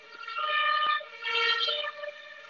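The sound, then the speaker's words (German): A police car siren blares loudly, its bright harmonic tone rising in two long swells with a short dip between them, and no voices over it. “Ist ja wieder ein Putzi Auto.”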